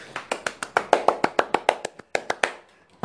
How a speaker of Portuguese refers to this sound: Vamos para bater palmas.